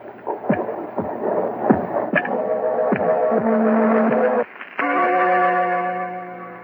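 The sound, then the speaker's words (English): Heavy, muffled heartbeat thumps pulse steadily, while an eerie droning, bell-like tone swells beneath them and grows louder toward the end. “And that noise you hear is his heart. The beating of his telltale heart.”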